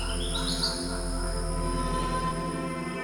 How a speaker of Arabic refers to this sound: طيور وحشرات